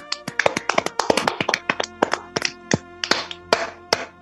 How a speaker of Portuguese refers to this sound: É, uma salva de palmas para essas grandes estrelas.